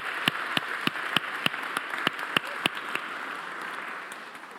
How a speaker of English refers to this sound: Fantastic. Can we give … a big round of applause for that?